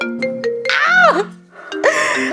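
A mobile phone ringtone from a spam call plays loudly on its own. A bright electronic melody of short repeated tones with sweeping, chirpy notes pauses briefly before the tune starts again.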